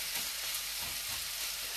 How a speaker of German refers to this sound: Also, du verteilst jetzt mal so das Hähnchen und die Kartoffeln relativ gleichmäßig in der Pfanne, dass sich alles hier so ein bisschen andreht.